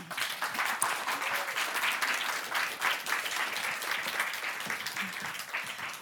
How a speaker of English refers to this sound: give him a big applause